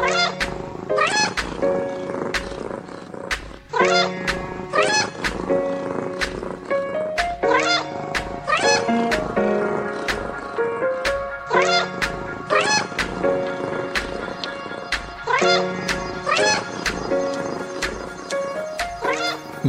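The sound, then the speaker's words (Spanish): A black cat meows again and again in an alley on a stormy night, drawn-out, wavering cries repeating throughout, loud, set against a steady rhythmic tapping beat that runs the whole time. “Un gato negro entra en el plano por derecha.”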